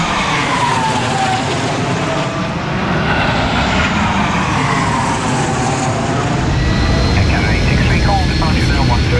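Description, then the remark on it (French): A loud airplane roars steadily overhead in the sky, its engine drone sweeping in pitch as it passes, with muffled voices faintly underneath. “Oh, regardez un avion dans le ciel.”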